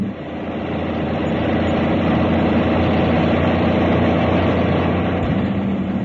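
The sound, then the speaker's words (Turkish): A big truck engine runs steadily with a deep, continuous rumble and a low droning hum, holding a constant loud level throughout with no speech. “Yürü koca kamyon yürü de Halil'in namı yürüsün.”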